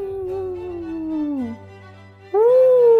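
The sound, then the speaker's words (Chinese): A human voice imitates a wolf howl: a long, steady wail that slides downward and fades, then after a short pause a second, louder howl rises and holds. No words are spoken. “大灰狼又在外面轻轻的呼唤”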